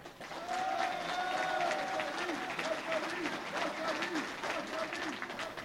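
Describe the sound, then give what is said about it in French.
A crowd at an assembly in the Oise, France, applauds itself for five months of holding roundabouts, tolls and borders, with dense, steady clapping that holds at an even loudness for several seconds, with a few voices calling out beneath the applause. “Et ça, en tout cas, on peut être fiers de nous et vous pouvez vous applaudir rien pour ça.”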